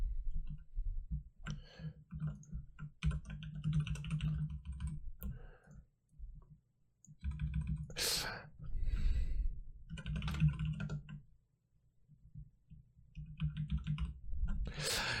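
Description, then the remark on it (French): Rapid keyboard typing clatters in uneven bursts while someone writes a poll, with sharp key clicks and occasional heavier thumps, pausing briefly between flurries. Faint breathing sounds appear, but no clear talking. “Oui, et vous profitez du bruit de mon clavier, je pense.”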